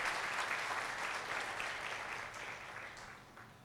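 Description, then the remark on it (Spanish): A crowd at a church service applauds God steadily, a dense wash of many hands clapping at once that holds for a few seconds and then tapers slightly toward the end, with no voices over it. “¿Cuántos le aplauden a Dios le dicen gracias Señor por esta tremenda bendición?”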